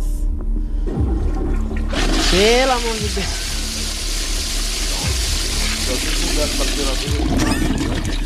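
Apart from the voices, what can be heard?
toilet flushing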